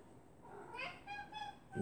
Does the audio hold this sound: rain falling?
no